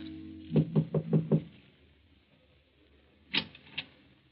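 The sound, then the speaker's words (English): Five quick, evenly spaced, solid knocks on a wooden door, then a pause and two sharper knocks, at the door of number sixteen, Rue de Roche, Paris. No one speaks. “Then one night, Hans Minkler makes his way through the maze of Paris traffic and knocks at the door of number sixteen, Rue de Roche.”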